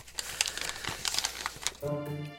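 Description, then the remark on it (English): A sheet of paper with a written plan crinkles and rustles as it is unfolded, a dense run of crackling bursts lasting nearly two seconds, then a voice begins speaking right at the end. “I have written out a plan to capture Baby Roo, and I shall read it out to you now.”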